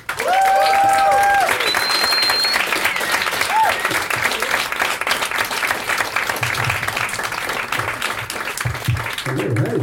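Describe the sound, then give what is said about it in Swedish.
Loud, sustained applause from an audience welcoming guest Sebastian Järpehag: a dense steady wash of clapping with a few whoops and shouts rising above it at the start, continuing for about ten seconds. “En varm applåd för Sebastian Järpehag!”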